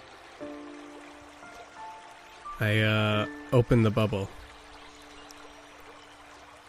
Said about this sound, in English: You feel the magic is gone and everything's silent except for rushing water.